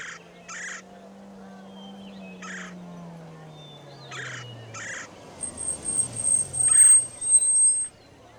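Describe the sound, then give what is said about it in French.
An angry duck quacks in short, harsh bursts, about half a dozen spaced irregularly, over a low engine hum of an arriving patrol car that slides downward and fades, with a thin high whine near the end. “Une voiture de patrouille arrive, conduite par un canard en uniforme. Il semble très agacé.”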